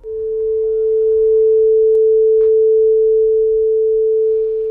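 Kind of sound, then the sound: tool, tuning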